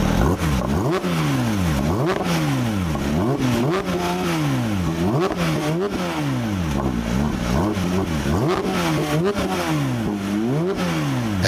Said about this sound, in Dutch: Ja, zo maken ze ze bijna niet meer. Hè? Nog maar een paar, ja, dat motorgeluid. Ja.